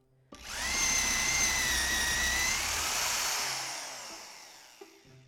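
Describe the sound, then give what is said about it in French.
A power drill, used to bore into a tree in a forest, whirs loudly for about four seconds, its high motor whine wavering slightly in pitch before winding down, with no voices. “Au même moment, le bruit des perceuses se met à résonner un peu partout dans la forêt.”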